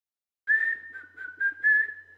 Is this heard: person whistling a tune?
yes